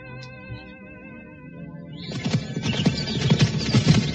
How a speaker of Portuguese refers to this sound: Próximo ao Vale de Siquém, Sulpício e segue avante em sua missão, montado num imponente cavalo negro.